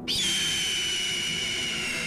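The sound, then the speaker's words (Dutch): A loud, piercing cry from a royal eagle sitting on its nest with wings spread, starting abruptly and holding as one sustained, shrill high-pitched scream for about two seconds, alone with no voices. “De vogel spreidt zijn vleugels en laat een hartverscheurende schreeuw horen.”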